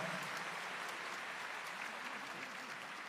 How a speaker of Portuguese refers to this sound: Dá uma salva de palmas mais uma vez para a beleza de Nossa Senhora.